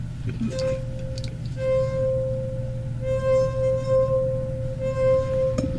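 A finger wetted with water rubs around the rim of a drinking glass marked with do-re-mi notes, drawing out a steady, singing mid-pitched tone that holds for several seconds with slight swells in loudness over a low background hum.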